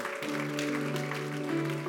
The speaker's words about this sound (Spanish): ¿Cuántos dan gloria al nombre del Señor? Dele ese aplauso fuerte a Cristo.